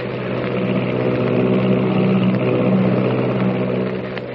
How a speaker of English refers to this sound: Is there someone lurking in the tail of the Army plane as it roars through the sky at 300 miles an hour?